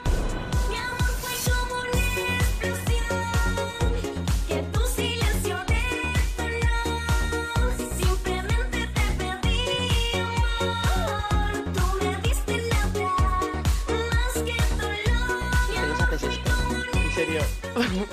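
A Spanish-language pop song plays loud and continuous, a sung lead vocal riding over a steady, punchy drum beat, bass and bright synths, with no talking over it.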